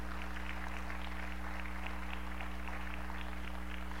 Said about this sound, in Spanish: Dale un aplauso al Señor fuerte, ya estoy por terminar.